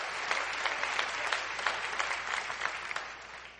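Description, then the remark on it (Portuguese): An audience applauds the Lord steadily, a dense wash of many hands clapping together at a fairly loud, even level, with no talking over it, easing slightly toward the end. “Você pode aplaudir o Senhor?”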